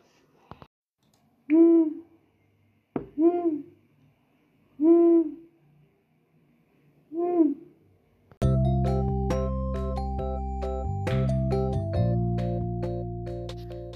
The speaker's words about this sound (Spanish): Se acerca cada vez más y un búho se posa sobre uno de los grandes árboles, donde estarán descansando tú y tu familia.